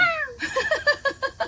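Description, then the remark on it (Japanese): A young boy's voice imitates a cat's meow: one drawn-out, falling mew followed by a quick run of short, giggly meow-like yelps, fairly clear, with no other talk; no real cat is present. “猫の真似を子供がした っていうだけで猫はいないんですねあのうちのあの息子の声ですなんか”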